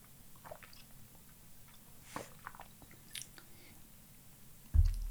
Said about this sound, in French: Je vais boire un petit coup d'eau, la bouche sèche, il fait chaud là dans cette pièce.